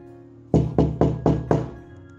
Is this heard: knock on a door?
yes